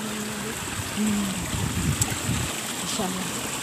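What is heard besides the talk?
flowing water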